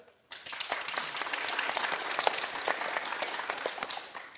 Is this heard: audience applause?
yes